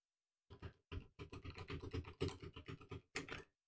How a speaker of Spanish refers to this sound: Casi tengo que aporrear el teclado mogollón para que se escuche, porque si no, doy 50 strikes y escucháis la mitad. Veis como que se entrecortan.